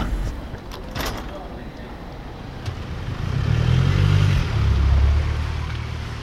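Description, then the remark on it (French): A couple of sharp thuds like car doors shutting, then a low engine rumble swells and holds as the car pulls away, taking a man to his office, with faint voices in the background. “Donc …, on est dans la voiture qui nous conduit euh, à votre bureau”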